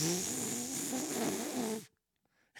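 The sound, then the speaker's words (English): A person uses their mouth to imitate a huge fart let out while taking a dump. It is a sustained buzzing, sputtering raspberry lasting almost two seconds before cutting off abruptly into near silence. “And Bubba let the biggest fart out I've ever heard him do. I mean, it was a full on,”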